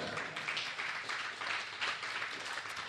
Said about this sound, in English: Come on, yes, you, you, you can clap for that.